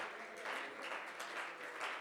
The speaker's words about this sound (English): Oh, give him another hand clap of praise.